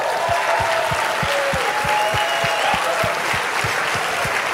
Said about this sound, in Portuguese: Eu quero dar uma salva de palmas para vocês que estão acordados a noite toda. Vamos lá.